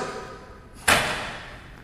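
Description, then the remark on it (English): A single sharp, loud slam as a book is brought down hard on a surface, followed by a brief fading reverberation; no one speaks. “Some of you like, unholy, he just slammed the bottle.”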